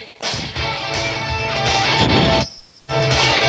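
A loud, dense rock track from a band's latest album, with steady low-end rhythm and bright, full-band instruments, cutting out briefly for a moment before crashing back in.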